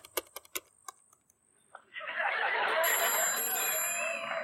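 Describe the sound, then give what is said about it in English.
A handful of sharp keyboard-like taps, then a loud landline telephone starts ringing inside a house at 11:30 p.m., its bright, steady ring filling the last couple of seconds over a wash of noise. “are sprawled out on opposite ends of the couch when they hear the phone ring.”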